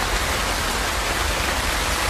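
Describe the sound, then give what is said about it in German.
The Wupper river in flood, heard from a bridge in the rain: a steady, powerful roar of very fast-rushing, very high water carrying much dirt fills the whole recording, with no voices and no change in intensity. “Man hört, das Wasser rauscht schon krass, es fließt unglaublich schnell, mhm.”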